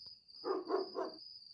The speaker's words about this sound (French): le chien a arrêté d'aboyer